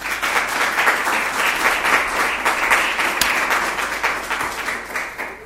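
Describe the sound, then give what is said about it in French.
An audience applauds two farmers who spoke at an agricultural event, a dense wash of many hands clapping at an even, sustained level for several seconds with no voices rising above it. “Donc je vous prie de les applaudir parce qu'ils le méritent.”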